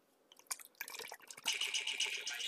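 Liquors (Havana Club Puerto Rican rum, Martell cognac, Bird Dog peach flavored whiskey) glug and splash as they are poured into a container, starting with scattered drips and then settling into a steady pour that fills the last second.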